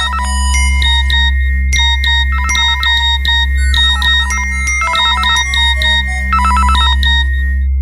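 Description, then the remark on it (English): A loud electronic phone ringtone plays a bright, repeating melodic pattern in short bursts for several seconds over a steady low hum, with no one speaking. “So he had constantly called me like from a blocked number, sent me text messages, sent me emails.”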